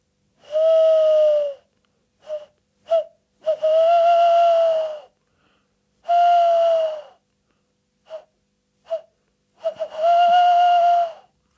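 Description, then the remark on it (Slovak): A person imitates a male owl's hooting call: four long, wavering hoots, each followed by a couple of short, clipped notes, with no talking. “Takže takto nejako sa ozýva samček sovy”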